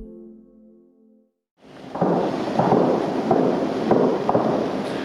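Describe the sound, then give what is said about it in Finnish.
After a brief steady tone, gunfire rumbles and echoes in a war zone, with several sporadic shots cracking irregularly through a continuous low roar. No one speaks. “Tuolta suunnasta tulee tällä hetkellä noita laukauksia.”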